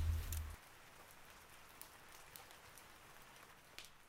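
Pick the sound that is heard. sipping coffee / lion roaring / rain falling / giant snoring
rain falling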